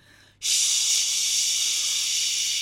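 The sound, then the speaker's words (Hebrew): A voice imitates a white noise machine, a small device placed near a sleeping child that makes a sound like a strong stream of water, with a long, steady "shhh" hiss that starts abruptly and holds at an even, loud level for over two seconds before cutting off. “רעש לבן, למי שלא מכיר, זה מכשיר קטן שמפיק רעש כמו של זרם חזק של מים.”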